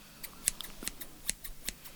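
Scissors snip body hair before waxing, in a quick, uneven series of about seven sharp cuts, each a crisp metallic click. No one speaks.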